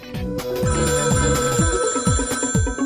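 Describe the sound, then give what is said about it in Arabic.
An old-fashioned, historic telephone bell rings in a steady, rapid series of loud metallic pulses, continuous for a few seconds, with a sustained tonal hum underneath and no talking. “هاتف أيام اللولو التاريخي”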